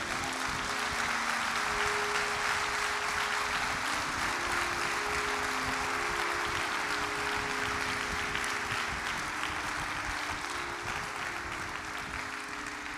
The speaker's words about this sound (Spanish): Puede dar un aplauso al Señor para que cambie esto.